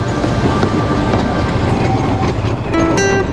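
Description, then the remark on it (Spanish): A tram rumbles steadily along its rails, loud, with rattling wheels and brief metallic squeals near the end. No one speaks. “La hacienda del Rosario ya no producía pulque y cada vez era más difícil y caro traerlo en tranvía.”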